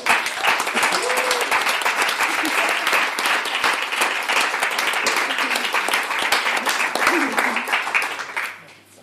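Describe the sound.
An audience at a reading event applauds steadily for about eight seconds to welcome two guest readers, a dense patter of many hands clapping at an even loudness, with a few faint voices and calls mixed in before it tapers off at the end.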